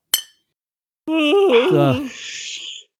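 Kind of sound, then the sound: household object, beer glasses clinking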